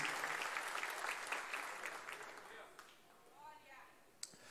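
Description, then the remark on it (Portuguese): An audience claps together in the name of the Lord Jesus, a dense, steady burst of applause that gradually thins and fades out, leaving a brief voice and a sharp tap near the end. “Aplauda o nome do Senhor Jesus.”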